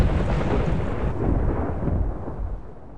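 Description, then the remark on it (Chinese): Low, rumbling thunder rolls continuously for a few seconds, heavy in the bass with a broad noisy wash above, slowly fading and thinning toward the end, with no voices. “极远处，水天相接的地方，一道白练疾驰而来，上方的天阴沉沉的，隐隐似有闷雷滚动。”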